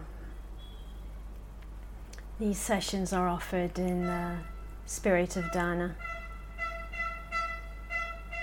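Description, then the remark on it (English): A man speaks, then a series of repeated honks sounds outside in Israel during a lockdown, short tonal blasts in quick succession that keep going after the talking stops. “Can you hear those honks?”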